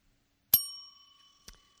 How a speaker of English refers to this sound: I love the bell